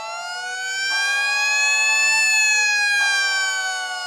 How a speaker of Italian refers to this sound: la guarda subito suona, l'allarme.